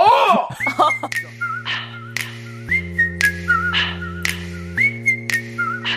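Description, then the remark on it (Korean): A person whistles a bright, wavering melody over a steady backing track with punchy beats during a sing-along to a Korean pop song, the whistled notes sliding between pitches and repeating in short phrases. “휘파람, 휘파람.”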